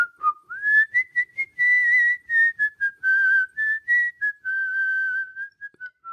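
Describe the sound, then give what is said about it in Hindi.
A person, one of three figures carrying guns walking onto a lawn at dusk, whistles a wavering, sliding melody, notes rising and falling in a continuous tune. It sounds clear, alone with no talking. “बिना कोई आवाज किए वे तीनों लॉन में दाखिल हो गए तभी उनमें से एक ने सीटी बजानी शुरू कर दी”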